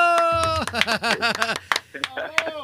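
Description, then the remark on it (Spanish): A wavering, quavering bleat rises and falls over a couple of seconds, fairly loud, apparently a person's voice imitating a sheep, followed by a couple of shorter vocal sounds. “lo quiero escuchar, Dante. Mira, bala”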